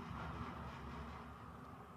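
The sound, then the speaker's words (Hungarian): A tram rumbles past outside, a steady low mechanical drone with a faint metallic hum, muffled, continuing evenly throughout with no voices. “A jó öreg villamos.”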